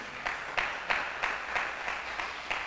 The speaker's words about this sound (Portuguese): Tem alguém para dar um aplauso a Jesus por isso?